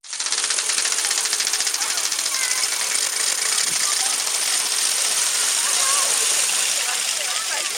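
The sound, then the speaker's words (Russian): A wooden Easter ratchet (řehtačka) rattles loudly and without pause, a dense, rapid clattering that fills the whole clip, with faint voices mixed into the din. “Шехтачек выходит люди по деревне, по городу и громко рехтай. Такой страшный звук, очень громкий.”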